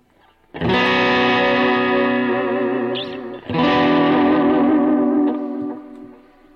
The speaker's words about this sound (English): Listen to that delay.